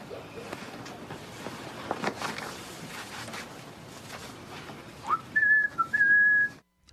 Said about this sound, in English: pretty much the, the whistling is the only thing you don't have to bleep in this.